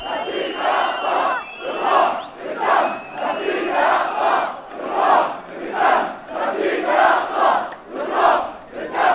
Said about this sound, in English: So here we are in the midst of the demonstration. You can hear people chanting slogans in support of Palestine, waving Palestinian flags and scarves.